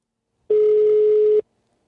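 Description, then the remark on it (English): A single steady ringback tone on an international telephone call to Germany: one long, fairly loud buzzing beep of about a second, standing alone with silence before and after it. “I'm calling like the middle of nowhere.”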